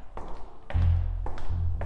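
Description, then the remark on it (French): Several sharp metallic clicks as a guard turns a key from his key ring in the lock of a heavy armored door, followed by a deep, heavy rumble as the door swings slowly open, with no one speaking. “Le gardien sortit un trousseau de clés de sa ceinture et la fit tourner dans la lourde porte blindée qui s'ouvrit doucement.”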